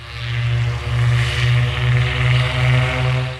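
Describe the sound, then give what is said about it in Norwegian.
Loud, steady roar of airplane engines accelerating for takeoff as Thane pushes the throttles fully forward, reaching 110 then 117 knots, with a deep humming drone and a wash of rushing noise, swelling and easing slightly in waves, with no voices. “Og 15.03 så skyver Thane eh, spakene i eh, bånn, og flyet det mm, akselererer.”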